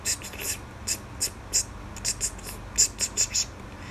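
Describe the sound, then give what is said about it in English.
Sharp, hissing sibilant bursts that pop out of a person's talking voice on a microphone recur about a dozen times in a quick, uneven rhythm over faint, soft speech, each hiss brief and bright, standing out above the muffled voice. “the weird thing about the way i talk is i've got this thing that like this hiss like right there you could hear it, this hiss that just pops out of nowhere like”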